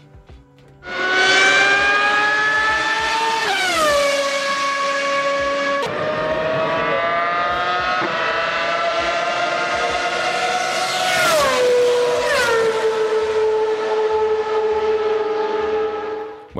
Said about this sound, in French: C'était un peu pour illustrer ma chronique et beaucoup pour se réentendre ce fabuleux son des, des V10 Ferrari qui hmm. couraient sur les, circuits de Formule 1 dans les années 2000. Et eh bien voilà, l'onde se contracte en se rapprochant,